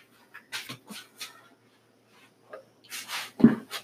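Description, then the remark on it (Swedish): A puppy in a house whimpers and pants, with soft breathy huffs and a few thin whines, ending in a short louder yelp-like burst. “När man har en valp i huset så vet man aldrig vad som kan hända kan jag säga.”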